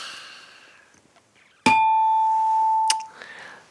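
A bright ding-dong-dang correct-answer chime rings out loudly after a quiet, murky start. One struck tone sustains for over a second, then a second strike ends it, with no one talking.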